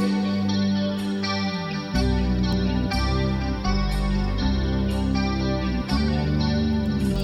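A rock song plays loud and full on the radio station 103.1 Sound Radio, with effects-laden electric guitar and sustained chords ringing out over steady bass, changing chords every second or two as it draws toward its close.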